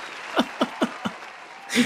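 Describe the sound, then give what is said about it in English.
A brief applause effect: four sharp, evenly spaced claps followed by a fuller, hissy burst of clapping at the end, fairly quiet overall, with no voices. “Before we get started into this, let's put Terry put a round of applause in there”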